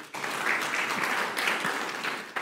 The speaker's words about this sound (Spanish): Dile un fuerte aplauso al Señor.